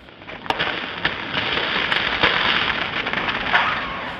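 Polar sea ice creaking and cracking around the ship Lance in the dark, at minus 40 degrees: a steady, dense crackle with sharp snaps and pops breaking through every second or so. No voices are heard.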